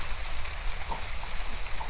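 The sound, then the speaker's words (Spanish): Steady rain patters down in a dense, even hiss, with faint scattered drops ticking on a surface and no voices present. “El clima está lluvioso, por lo tanto, si sale afuera, le va a llover encima”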